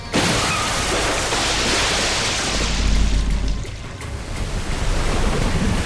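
A loud, roaring great wave surges and crashes down upon a wooden boat at sea, almost overturning it, with a heavy low rumble swelling midway, then churning surf and spray continuing steadily to the end. No voices.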